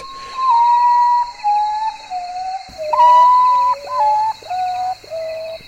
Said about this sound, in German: So ein Vogel der Woche. Der Oruatau. der Tagschläfer.